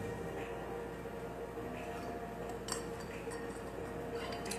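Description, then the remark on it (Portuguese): A few soft, sharp clinks of glass as someone drinks water, scattered and spaced apart, over a steady low background hum with no talking. “Vou tomar aqui uma água.”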